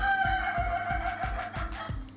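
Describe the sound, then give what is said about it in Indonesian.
A chicken cackles and crows in a drawn-out, wavering call lasting a couple of seconds, with a steady low thumping pulse running underneath. “Sorry ayam gue ketawa”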